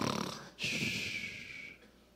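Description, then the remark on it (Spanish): A person imitates snoring with their voice: a short breathy intake followed by one long, raspy, nasal snore, loud, fading out at the end. No words are spoken. The snore imitates Jesus sleeping in a boat during a storm. “estaba durmiendo en medio de la barca y había una tempestad y los discípulos estaban allá y veían eso moviéndose y las olas que se levantaban y el Señor roncando allá.”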